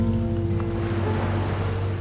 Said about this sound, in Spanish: Y ante todo está el mar.